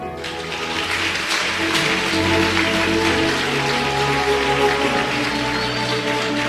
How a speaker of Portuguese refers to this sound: Dá uma salva de palmas, Senhor.